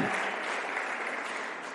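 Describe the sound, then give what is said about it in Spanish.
A church audience claps steadily throughout in response to the preacher's call for applause, a dense wash of many hands at moderate volume with no pauses and no talking. “¿Alguien puede darle un aplauso a esa idea y poder decir, yo estoy ahí, yo quiero estar ahí?”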